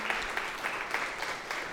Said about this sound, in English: We don't clap a lot in this church, but that deserves a clap, right?